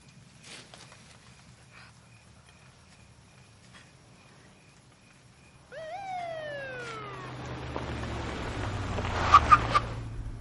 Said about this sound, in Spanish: Un coche de policía se detiene frente a ellos.